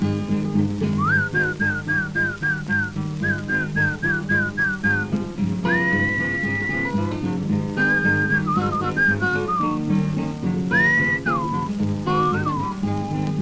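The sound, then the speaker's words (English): A person whistles to call a dog: quick rising chirps in two rapid runs, then longer held notes and warbling twists, clear over a steady low background hum. “I must whistle for you. Something like this.”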